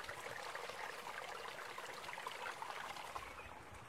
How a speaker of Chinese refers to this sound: 我现在所站的这个位置，大家听到没有？有溪水的声音